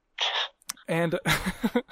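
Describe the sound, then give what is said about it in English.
A short dog whine from the speaker's dog, Max, rises for a moment, then a person starts talking and laughing right after it. “yeah, yeah, that's my dog.”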